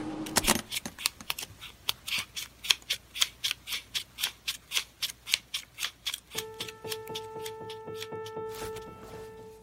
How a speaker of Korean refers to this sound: 오늘은 현금 인출기에서 돈 뽑는 소리 들려드렸습니다.